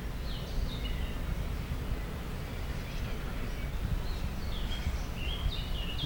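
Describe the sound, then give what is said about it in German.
A Eurasian wren (Zaunkönig), a small bird with a loud voice, sings faintly, two short bursts of high chirping phrases separated by a pause, over a steady low outdoor rumble. “Der Zaunkönig ist ein, ja, ein richtiger Don Juan.”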